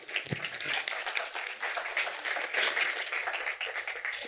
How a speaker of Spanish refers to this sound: All right, muy bien. Un aplauso para ella. Venga.